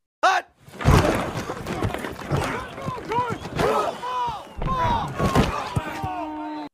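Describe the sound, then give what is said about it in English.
A voice imitates football helmets banging together on the snap, a burst of clattering, smacking mouth noises with harsh percussive hits and wavering vocal tones, loud for several seconds. “I'll do the sound of like um after I'll do the sound of um the helmets banging together on a snap in football.”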